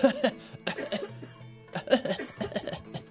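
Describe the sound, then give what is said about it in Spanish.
A voice imitates a series of short, hacking coughs in several bursts, mixed with breathy laughter, fairly loud, with brief pauses between the bursts. “Y en estas que empiezo a toser pero no estaba resfriado, no estaba atorado, no tenía eh, una tos rara.”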